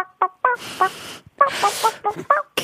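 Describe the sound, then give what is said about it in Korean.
A listener's impression of a chicken on the radio show Kang Han-na's Volume Up: a string of short, loud, throaty clucking bursts and squawks in quick succession, with brief pauses between calls. “아, 진짜 닭소리 같지 않았나요?”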